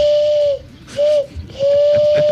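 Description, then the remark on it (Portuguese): A person imitates a pigeon's call with three steady, whistle-like hoots, the middle one shortest, sounding much like a train whistle, fairly loud with no talking. “Quem é que faz uma imitação de pomba melhor, hein? Ó, no meio do mato dela. Esse é, parece um trem.”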